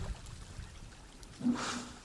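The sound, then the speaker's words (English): A warthog's short, nasal grunt breaks out over a low outdoor rumble, a single snorting burst partway through that sounds a bit like a chuckle. “Listen to the warthog. It's like the warthog's laughing and taunting him.”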